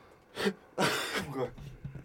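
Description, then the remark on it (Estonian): A faked sneeze: a short breathy build-up, then a loud, hissy voiced burst that trails off into softer breathy vocal noises. A person imitating a sneeze rather than really sneezing. “feikisid aevastust, issand jumal küll.”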